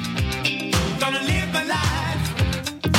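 A rock song plays loud and full, with a steady driving beat, thumping bass and layered guitars filling the whole stretch without pause.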